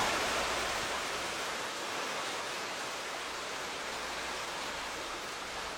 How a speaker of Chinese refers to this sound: 接下来，我们发现瀑布的声音越来越小。